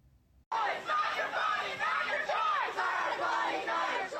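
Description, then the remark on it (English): A crowd of pro-abortion protesters at the U.S. Capitol on Sunday shouts slogans together in defiance of the Supreme Court ruling overturning Roe v. Wade, a loud, sustained chorus of overlapping voices that starts abruptly and keeps going in rising and falling waves. “Capitol on Sunday showed contrasting opinions, with pro abortion protesters shouting slogans in defiance of the ruling and pro life supporters celebrating the decision.”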